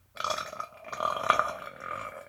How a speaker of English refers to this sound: God, that burp sounded like it came out of my ass